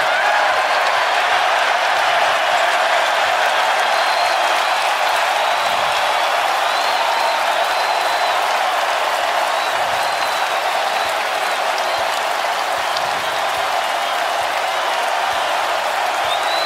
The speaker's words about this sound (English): And the Garden fans starting to celebrate.